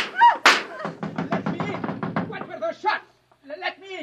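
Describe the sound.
Someone pounds hard on a door with a loud opening thud and a quick run of heavy, muffled blows, while agitated voices shout over the banging.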